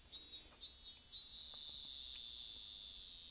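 Japanese cicadas shrill loudly, opening with three quick pulsing bursts before settling into a continuous high, buzzing drone. No voices are heard, only the dense insect chorus.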